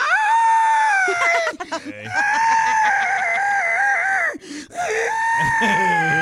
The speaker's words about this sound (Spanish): Eh, pura vieja ardida estaba gritando ahí.